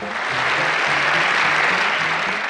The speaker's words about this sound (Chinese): 掌声在哪里？